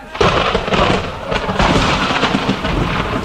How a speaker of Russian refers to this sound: Удары грома слышались чаще и чаще, и крупный дождь застучал в окна.